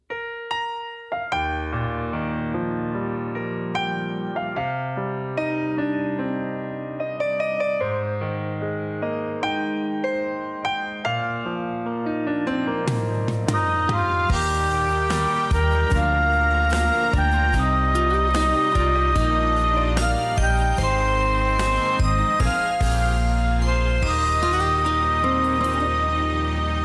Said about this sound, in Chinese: 要来甲大家分享到这首抒情歌曲，是这张专辑当中所收录的第六首歌曲。知影无？这首歌曲的前奏啊，一开始用着这个钢琴的声音哦，真温柔来开始